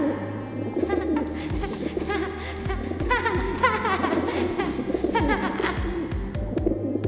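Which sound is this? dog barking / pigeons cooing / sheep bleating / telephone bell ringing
pigeons cooing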